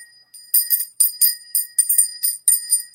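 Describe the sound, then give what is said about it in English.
Small bells jingle in quick, shaken bursts, a bright tinkling that comes in about eight pulses with a steady high ring sustained underneath, fairly loud with no voices. “Oh, we need some bells.”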